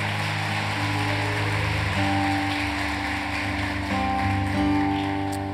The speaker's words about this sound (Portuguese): Aplaudir o Senhor.